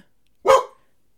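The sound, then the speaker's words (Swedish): A single sharp, fairly loud bark from a female dog barking at a sound, standing alone against silence with no talking around it. “Ja, men det var på en katt, men nu verkar hon bara skälla på ett ljud av...”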